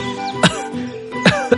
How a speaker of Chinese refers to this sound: 一阵风吹过，他咳嗽了两声。